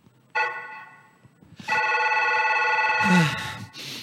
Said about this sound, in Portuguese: Toca o telefone e o … atende do meu celular, que agora o Big Fone é com o celular